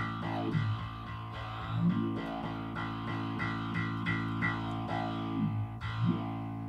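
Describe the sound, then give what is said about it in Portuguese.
A heavily distorted electric guitar played through a distortion pedal plays sustained, buzzy chords with a few bending slides, loud, with no voice over it. “Daí aqui algo mais intenso. A distorção. É uma distorção e esse pedal é bem legal que eu tenho um ajuste de tipo um crossover nele.”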